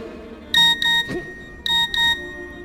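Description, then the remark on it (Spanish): A mobile phone in a pocket sounds a WhatsApp message alert twice, each time a quick pair of bright electronic beeps, clear with no voices present. “Mientras tanto, al rey Luis XIV, que sigue de fiesta en los salones de palacio, le vibra algo en el bolsillo.”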